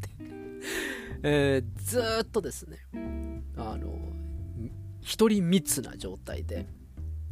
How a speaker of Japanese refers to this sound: ということで、今宵のチャプターはもしかしたら、後ろの方で雑音があるかもしれません。これ扇風機の音です。すいません。あの、あまりにも暑くて